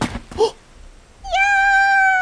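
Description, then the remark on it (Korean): A cat gives a short meow, then after a brief pause lets out a longer, sustained, strained meow that holds steady and loud until the end, with no one talking. “고양이가 순식간에 호랑이로?”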